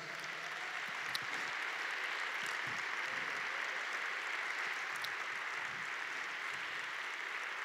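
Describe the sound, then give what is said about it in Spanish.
Steady, sustained applause from an audience in a church, given to Jesus, a dense wash of many hands clapping at once with no pauses, holding at an even level throughout with no voices standing out. “Sí, dale ese fuerte aplauso a Jesús.”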